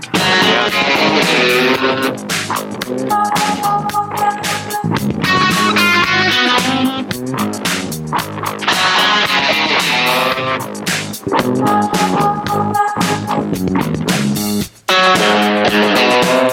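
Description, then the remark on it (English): Loud, full-band music with a bright, retro-sounding electric guitar lead playing melodic lines over driving drums and bass, continuous throughout with no voices. “Man, the the guitar lead is sick and retro. I don't even think that's full of distortion.”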